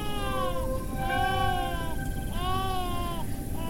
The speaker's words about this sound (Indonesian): Dewi yakin suara tangisan bayi berasal dari situ.